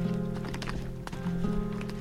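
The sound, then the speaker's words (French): Dairy cows waiting for milking, massed against the fence at the pasture exit, shuffle about, their hooves making irregular thuds and clops on the ground over a steady low droning hum. “alors là, ça, c'est les vaches qui attendent toutes en fait.”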